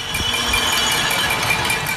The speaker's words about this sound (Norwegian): De står i vinduer og på balkonger og slår på gryter og lokk for å markere sin motstand mot presidenten.